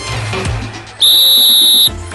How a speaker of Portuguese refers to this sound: Ah, Apito árbitro, Bergamota Mecânica entrando em campo, episódio 37 no ar.